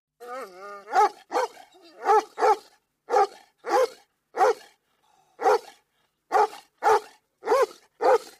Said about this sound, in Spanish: Cuando saltó de comer, se puso a correr de un lado a otro se puso muy contento y empezó a ladrar de alegría.